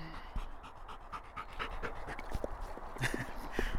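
A dog pants in quick, steady breaths, a rhythmic huffing that continues throughout with a few soft clicks and small noises mixed in.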